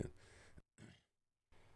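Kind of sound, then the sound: human body sound, throat clearing or cough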